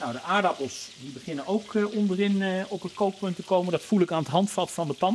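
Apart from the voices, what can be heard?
minced meat sizzling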